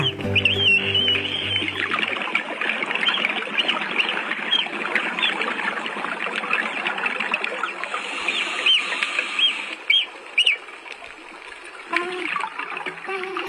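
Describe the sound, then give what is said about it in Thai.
A dugong's high, thin chirps and squeaks recorded underwater in the sea, from a video clip by Save the Dugong recorded in 2019 (B.E. 2562), scattered over a dense, steady crackling hiss, with a brief low tonal hum at the very start. “แล้วก็ขอปิดท้ายด้วยเสียงที่หาฟังยากที่สุดในมหาสมุทรนั่นก็คือเสียงของพยูนที่กำลังส่งเสียงร้องในทะเล มีผู้บันทึกไว้เป็นคลิปวิดีโอ จาก Save the Dugong ค่ะบันทึกไว้เมื่อปีพศ2562เสียงนี้เป็นเสียงที่ฟังแล้วมีความสุขที่สุดเลยค่ะ”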